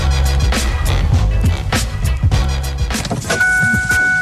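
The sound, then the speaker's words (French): A key turns and a new Nissan car's engine cranks and starts, a loud mechanical rumble with clicks and rattles, followed by a steady electronic chime-like tone near the end. No one speaks. “Lorsque vous tournez la clé de votre auto neuve chez Saint-Nicolas Nissan, vous ne faites pas que partir la voiture, vous démarrez l'aventure.”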